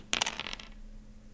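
Dice are rolled next to a microphone, clattering sharply across a hard surface, a quick burst of several rattling clicks that bounce and fade within about half a second, followed by quiet with a faint hum.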